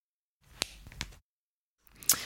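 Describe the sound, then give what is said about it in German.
A person cracking their finger knuckles: two quick sharp pops, then a pause and a third louder crack, each surrounded by soft rustling of hands. No one speaks. “Ich weiß nicht, ob du es gehört hast, das waren meine Finger.”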